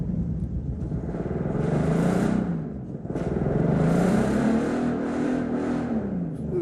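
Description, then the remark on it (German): An Aston Martin sports car engine, kept among a collection of about 40 luxury cars, revs loudly in two rising surges, a deep throaty rumble climbing in pitch, dipping briefly between them, then holding a sustained growl. No one speaks. “Mohamed Hamatet vom Finanzministerium erklärt uns, dass der Aston Martin ein Lieblingsgefährt von Ehefrau Leila war, schon wegen des ganz besonderen Sounds.”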